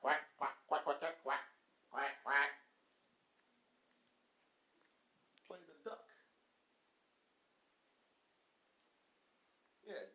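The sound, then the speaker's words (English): A man's voice imitates a duck, with a quick run of nasal quacks, then a couple more, followed by quieter vocal sounds after a pause. “Quack, quack, quack, quack.”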